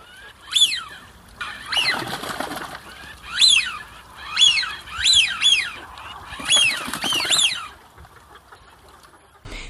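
Eurasian wigeon (Anas penelope) calls: a string of about eight loud, high whistles, each rising then falling, coming in irregular bursts with a soft rushing background and no talking.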